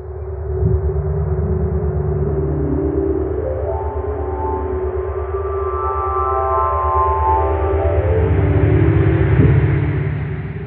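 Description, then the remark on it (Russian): A NASA data sonification of the variable star R Aquarii, turning its image, positions and brightness into sound: a steady, droning tone bed with layered rising and falling pitched whistles sweeping across it, smooth and continuous, with no voices. “На этот раз, благодаря работе НАСА, можно услышать, как звучат переменная звезда Р Водолея”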